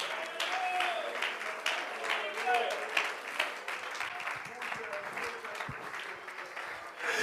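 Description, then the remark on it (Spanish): An audience applauds steadily for several seconds, a dense wash of many hands clapping at once with no clear individual beats, mixed with faint voices underneath. “Bríndele ese aplauso con todas sus fuerzas, hermano.”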